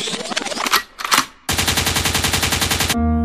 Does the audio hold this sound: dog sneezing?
no